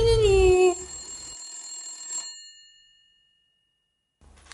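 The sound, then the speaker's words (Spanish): A telephone bell rings once, loud, its metallic tone lingering and fading over a couple of seconds before silence. No one speaks. “¿de cuándo tenemos un teléfono? Nos lo habrán instalado en las vacaciones para hablar con los fans. Diga.”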